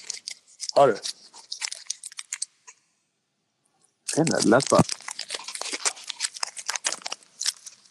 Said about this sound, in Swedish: Jag öppnade en kexchoklad.